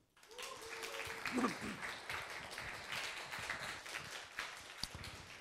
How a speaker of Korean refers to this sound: 그런 면에서 여러분 인간 문재인에게 박수 한번.